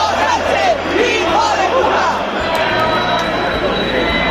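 A dense crowd at a nighttime protest in Madrid, Spain, roars and shouts together in a loud, steady wall of many voices, chanting slogans such as "Puigdemont a prisión" and insults at the Spanish prime minister, rising and falling throughout with no single voice standing apart.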